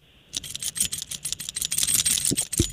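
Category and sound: household object, keys jingling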